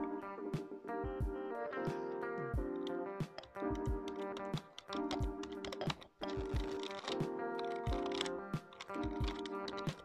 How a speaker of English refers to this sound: second object is a keyboard.